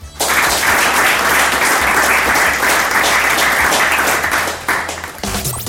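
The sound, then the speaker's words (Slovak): Sustained, loud applause from a crowd, a dense steady wash of many hands clapping for about five seconds before it thins out and drops off at the end. “Happy endom a takýmto potleskom.”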